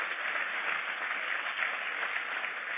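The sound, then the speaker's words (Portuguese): A church audience applauds the Lord steadily, a dense wash of many hands clapping at an even loudness for the whole stretch, with no voices standing out. “Pode aplaudir ao Senhor, se é para ele é forte.”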